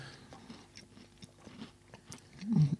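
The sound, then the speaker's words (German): Someone chews crunchy shortbread chocolate cookies: a steady run of sharp, crackly crunches and mouth noises, fairly quiet, ending with a brief low hummed sound. “Sorry, wegen der Kekse.”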